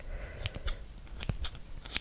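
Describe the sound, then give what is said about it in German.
Scissors being handled for a haircut: a handful of sharp metallic clicks and snips at uneven intervals over a quiet background, with no one speaking. “Dann nehme ich meine Schere.”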